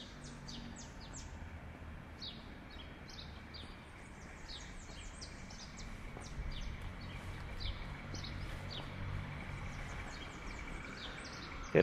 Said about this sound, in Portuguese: eu estou escutando pardal. Olha aqui um sabiá laranjeiro pousou do meu lado.